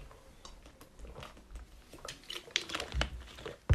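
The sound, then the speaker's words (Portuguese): Someone handles a plastic bottle and takes a drink of water: soft crinkles, scattered clicks and light taps over a few seconds, ending in a sharper knock, all fairly quiet with no talking. “deixa eu só tomar uma água”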